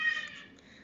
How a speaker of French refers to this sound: Oui, c'est mon chat.